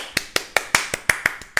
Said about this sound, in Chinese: 需要鼓掌的吧？现在全部起立鼓掌！如果你现在是在工作室的人，小小的就好。